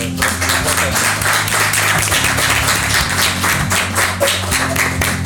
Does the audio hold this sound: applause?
yes